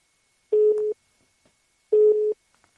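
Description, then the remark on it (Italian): A telephone busy tone after a dropped call: two steady, mid-pitched beeps of about half a second each, evenly spaced, loud and clear with nothing else around them. “è caduta la linea.”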